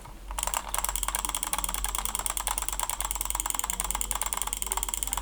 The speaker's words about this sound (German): Dann kommt da, kommt da jetzt ein Sound. Warte, ich mach mal ab. Nö. Nö. Nö. Jetzt, jetzt klick mal auf die Maus.